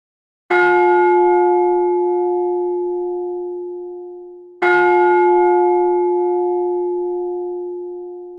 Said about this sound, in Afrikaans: Volgens Ron Martin het meeste van die klokke van skepe afgekom.